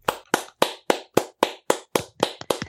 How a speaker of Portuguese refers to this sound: Eu queria puxar aqui uma salva de palmas para a Janaina Pascal por essa bela decisão